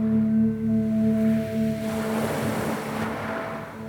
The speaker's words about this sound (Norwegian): Eh, men du vet, havet det bruser seg, og det er så vilt.